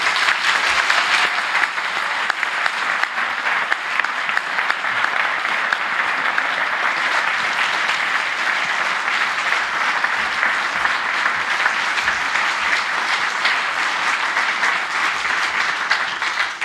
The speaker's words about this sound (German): herzlichen Glückwunsch im Namen der Jury zum ersten Preis des langen Atems 2022. Applaus